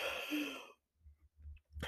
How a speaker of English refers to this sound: Sorry, I have to yawn again.